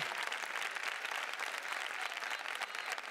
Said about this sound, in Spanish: Déselo fuerte el aplauso al Señor.